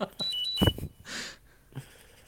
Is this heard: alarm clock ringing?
yes